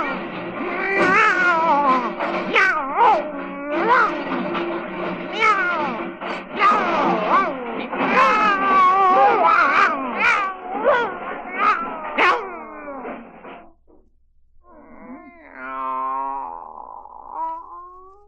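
Several cats meow and caterwaul loudly in overlapping, wavering yowls for about twelve seconds, then after a short pause one drawn-out, quieter meow follows.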